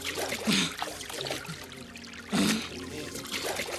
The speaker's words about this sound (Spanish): Este es el estanque. El agua.